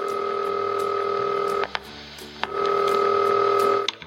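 Touch-tone dialing on an old, not very modern phone: two long, steady keypad beeps separated by a short pause with a few clicks, clear over a low background hum, with no one talking.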